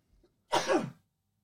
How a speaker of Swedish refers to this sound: Jag var tvungen att nysa